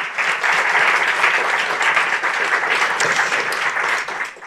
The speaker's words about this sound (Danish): Ja, og velkommen til Succeskriteriet, som i dag bliver optaget i salongen på toppen af Berlinske med et veloplagt publikum. Det kan være, at I lige skal klappe, så man kan høre, at jeg er